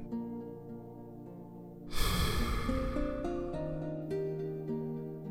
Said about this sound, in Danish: Træk vejret dybt ind og fyld din mave med luft. Pust det langsomt ud igen.